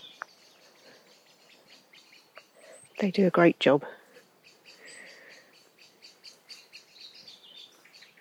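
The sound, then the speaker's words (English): A blackbird in a wood gives repeated sharp alarm notes at a human on the ground, ticking on and off throughout over an outdoor background, while a person briefly speaks partway through. “You can hear a blackbird alarming, telling everyone that there's a human here.”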